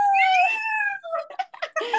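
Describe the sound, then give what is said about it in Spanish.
Female cats fighting: a long, drawn-out wavering yowl, then a burst of choppy, rising and falling snarls and cries, loud and tense. “Gatas peleando.”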